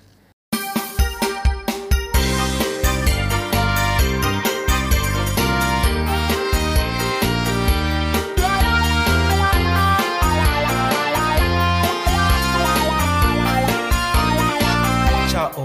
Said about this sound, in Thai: แต่ว่าตอนนี้เรามีบทเพลงเป็นกำลังใจให้กับคุณ ฟังเพลงก่อนเดี๋ยวกลับมาคุยกันต่อค่ะ